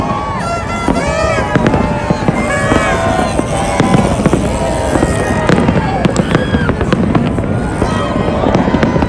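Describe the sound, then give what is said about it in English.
Fireworks crackle and pop in rapid bursts at New Year over a dense, noisy crowd of about 300,000 people along a street strip closed for the new year, with sharp bangs scattered throughout and a constant murmur of many voices filling the open street. “Oh, there's more fireworks going off.”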